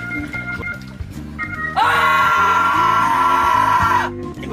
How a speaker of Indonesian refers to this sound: Pengen teriak, boleh nggak?